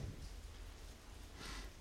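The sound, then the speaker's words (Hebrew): Steady rain falls at 4:47 in the morning with a continuous, even hiss and soft pattering, fairly quiet and constant throughout, with no voices present. “אה, איזה גשם. לא אפסיק לרדת לשנייה.”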